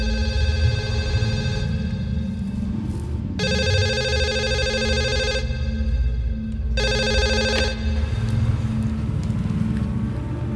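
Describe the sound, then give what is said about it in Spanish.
A telephone rings in a hangar in two long bursts of bright, buzzing tone separated by a short pause, sounding over a steady low rumble in the background. No one speaks. “En el hangar, el teléfono suena.”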